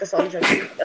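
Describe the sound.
A person's speech is cut off by one sudden, loud sneeze, a short breathy burst, before the talking picks up again briefly.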